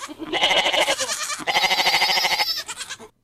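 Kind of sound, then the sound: animal, goat bleating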